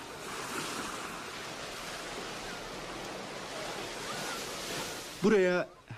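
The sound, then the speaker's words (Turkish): Waves lap steadily against a pier in a continuous, even wash of water sound for several seconds, before a voice briefly speaks near the end. “Belki birkaç sene sonra bu iskelede el ele dalgaların sesini dinleyeceğiz.”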